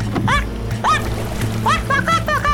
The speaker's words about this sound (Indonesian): Bebek itu berseru nyaring.